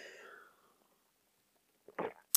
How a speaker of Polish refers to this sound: Jedziemy dalej, łyk kawy.